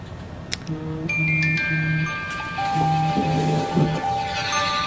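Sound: timer going off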